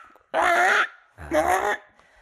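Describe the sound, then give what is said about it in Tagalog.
A person mimics a bird's call with two loud, nasal squawks about half a second each, separated by a short pause. “yung ibon it makes this sound na...”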